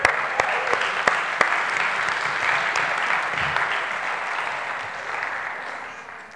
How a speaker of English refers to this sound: Let's give these guys a round of applause.